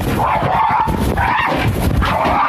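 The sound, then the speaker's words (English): A dog in a residential neighborhood barks and snarls aggressively, loud harsh bursts coming in quick succession over roughly two and a half seconds with no pause between them. “got aggressive dogs in this neighborhood”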